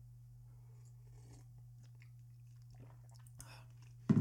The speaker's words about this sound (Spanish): déjenle, déjenme, le doy un, sorbo a mi café.